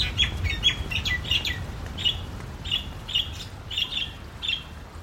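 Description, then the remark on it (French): Birds sing and chirp among trees in a steady stream of short, repeated high calls, over a low rumbling outdoor background with no one talking. “On y entend les chants des oiseaux.”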